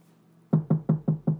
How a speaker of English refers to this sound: Somebody else knocks on the door.